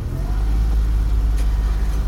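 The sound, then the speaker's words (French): A car engine rumbles steadily, a loud, low drone with a faint rising whine early on, as if the vehicle is pulling away. No one speaks. “En voiture alors, et roule tranquille”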